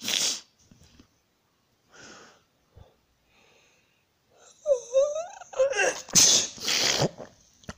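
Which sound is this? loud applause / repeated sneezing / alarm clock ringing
repeated sneezing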